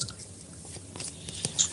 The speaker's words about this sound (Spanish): Escúchame, que estoy comiendo.